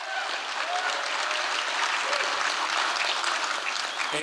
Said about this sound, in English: I do want to once again thank all the volunteers that uh, have made Fisher Poets uh, work, and it's just so nice to be back together. Let's give all the people helping out a big round of applause.